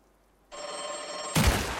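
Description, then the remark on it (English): A telephone bell rings out loud with a steady metallic jangle, then a sharp gunshot from a bedside gun cuts it off abruptly as the ringing phone is shot, blasting its mouthpiece off. No one speaks. “I instinctively grab my bedside gun and shoot the source of the ringing.”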